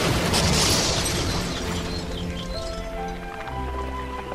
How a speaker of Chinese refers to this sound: 然后他把火药倒进去，又撕下一小块衣服，卷了一些火药当做引线。过不久，火药终于把大原石的岩石炸个粉碎，大原石松动，滚啊滚的，掉进了大海。